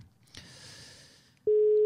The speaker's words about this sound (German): Wir haben ein Amt, es klingelt und jetzt sind wir mal gespannt, ob.